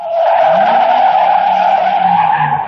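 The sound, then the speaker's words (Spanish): The tires of the Onda Cero radio mobile unit van squeal in one long, loud, steady screech lasting nearly three seconds as it drives along the Camino de Siches road, with a low engine rumble rising and falling underneath. No one speaks. “La unidad móvil de Onda Cero transita por la carretera Camino de Siches”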